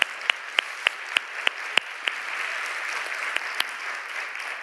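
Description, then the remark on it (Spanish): Audience applause: a few sharp, evenly spaced claps in unison at first, then a steady wash of many hands clapping at once for several seconds, with no one speaking. “decir un aplauso.”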